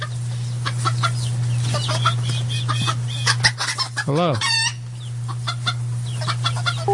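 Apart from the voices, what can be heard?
hen clucking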